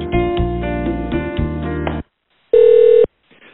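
A phone line as a call is being transferred: about two seconds of dense, buzzy tones, a brief pause, then a single steady ringback tone, loud, with no voices.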